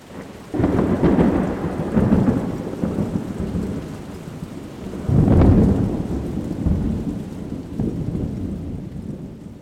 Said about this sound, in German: Wird leider wieder wärmer, aber das kommt, weil es ein bisschen geregnet hat. Und leider auch wirklich nur ein bisschen. Also auch mit so leichtem Gewitter und so.